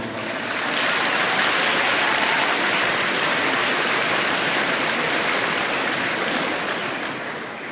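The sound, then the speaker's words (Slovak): Steady rushing water, like a stream or small waterfall, on a hot summer day fills the whole stretch with a dense, even hiss that fades in at the start and stays loud throughout, with no voices. “V týchto chvíľach, keď aj vám je tak veľmi teplo, až to tak cítiť tu a vidím pred sebou vodu,”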